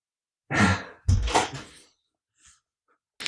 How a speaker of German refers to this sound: ich, ich mach kurz die Tür zu, sonst schreit er wieder.